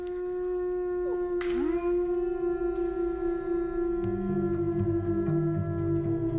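A chorus of wolves howls together, long sustained tones overlapping with sliding pitches and lower yips joining partway through, steady and fairly loud with no talking.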